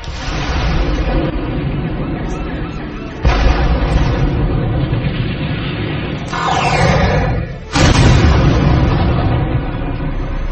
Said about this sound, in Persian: یهو سوت خمپاره فضای کلاس رو میشکافه و بعد از اون سقف کلاس شروع یه جنگ